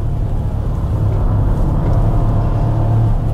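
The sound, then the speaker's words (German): A three-cylinder car engine in a car with a six-speed manual gearbox drones loudly and steadily as the car accelerates through curves, with a deep, throbbing low-pitched hum and no voices. “Wenn ich jetzt wirklich beschleunige, dann höre ich den Dreizylinder.”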